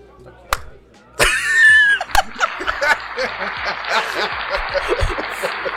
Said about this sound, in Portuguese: Muito obrigado, senhores. Salva de palmas, gente.